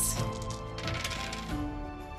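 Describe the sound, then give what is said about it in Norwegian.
Four six-sided dice clatter and tumble across a hard surface, a busy rattle of small clicks that rings briefly before settling, with no voices. “Så vi ruller fire D6 seks ganger.”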